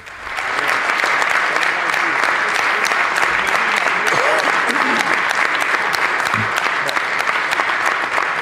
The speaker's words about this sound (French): Ce que vous allez entendre avant d'entendre la voix de M. Legault, ce sont les applaudissements de son équipe, les applaudissements nourris de l'équipe. Euh, évidemment, c'est l'enthousiasme encore de la victoire qui se poursuit à la CAQ.